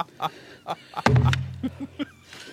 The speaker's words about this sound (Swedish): Det är kul med den här, eller är hon trött för att hon lyfter den här jättetunga hammaren som dunsar i början?